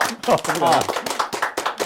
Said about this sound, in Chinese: 对啊，对啊，所以是不是最接地气？再掌声鼓励一下。